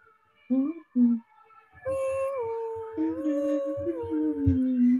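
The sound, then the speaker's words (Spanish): A passing ambulance siren wails with a slowly rising and falling tone that holds steady for several seconds, preceded by two short yelping bursts. “Espérame una ambulancia.”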